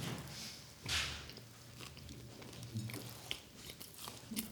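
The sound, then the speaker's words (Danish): People standing and eating a dish with basil, toasted rye bread and garlic: biting into the food and chewing, with wet smacking and small crunches repeating over several seconds, no one talking. “Der kommer lidt smaskelyd sådan i, uh, i 30 mm. sekunder her.”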